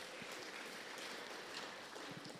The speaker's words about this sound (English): Now we are four. Praise the Lord. Why don't you clap for yourselves for that?